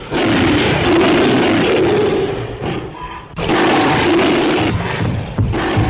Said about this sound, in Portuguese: É, você falou do som, né, do grito do King Kong, que é uma, uma mistura de grito de leão, leão com tigre.